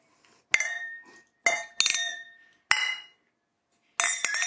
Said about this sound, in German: dann bitte erstmal 5 Sekunden Convenience Noise, dann anstoßen und dann können wir loslegen.